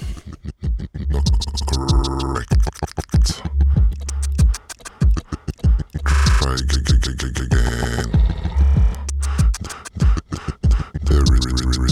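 A loud music track plays continuously, built on a thumping bass beat with rapid, choppy percussive hits and scratch-like turntable sounds, up close and filling the whole stretch.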